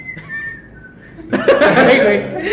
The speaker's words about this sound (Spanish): ¿Alguien sabe hacer el chiflido de...?